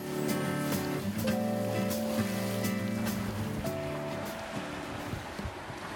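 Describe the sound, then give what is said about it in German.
Steady, continuous wash of ocean surf on the Canary Islands, loud, with sustained musical tones layered over the first few seconds before the rushing water carries on alone. “Wie ihr vielleicht schon hört im Hintergrund, Meeresrauschen.”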